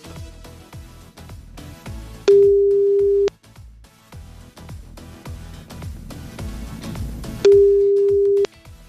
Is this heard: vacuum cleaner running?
no